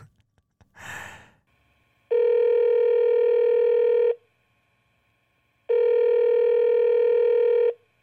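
A short breath, then the ringback tone of a phone call being placed at 2 in the afternoon: two steady, buzzy tones of about two seconds each, separated by a pause, loud with no talking.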